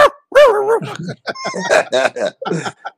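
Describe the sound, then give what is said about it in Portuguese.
A small dog barks and yips in a quick series of sharp, high bursts, tangled up with people talking over it. “Deixa o cachorrinho latir, gente.”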